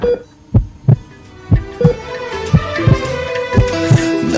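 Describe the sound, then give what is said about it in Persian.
A baby's heartbeat sounds over a doctor's monitor, turned up louder by the doctor. Steady paired thumps repeat about once a second, low and fairly loud over a faint tonal hum, with no voices. “دکتر جان یه خورده صدا قلبشو بلندتر میکنی بله بله حتما”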